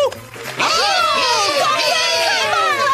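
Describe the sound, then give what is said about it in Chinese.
A group of children bursts into loud, high-pitched cheering for Goofy the magician after a brief quieter moment, many overlapping excited voices shouting together and holding steady to the end. “让我们为魔术师高飞欢呼！”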